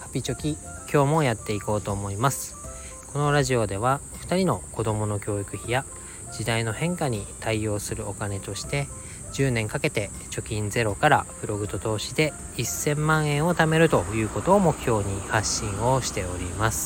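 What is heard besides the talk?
cicadas buzzing outdoors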